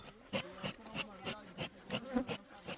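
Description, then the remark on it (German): A dense, steady buzz of many bees at a bee fence of over 100 beehives set up along a national park boundary, between fields and the park in Bihingo, to keep elephants away, with rhythmic pulses of louder wingbeats rising and falling as insects pass, no voices present. “Deswegen wurden entlang der Parkgrenze über 100 Bienenstöcke aufgestellt”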